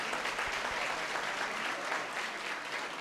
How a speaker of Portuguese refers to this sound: Dá uma salva de palmas para as irmãs aí.